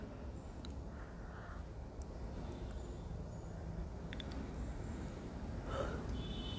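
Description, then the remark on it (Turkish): A couple of breathy, drawn-out yawns, the strongest near the end, over a steady low background hum. “durmuyor, esnemeler.”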